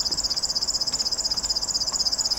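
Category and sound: bird, river warbler singing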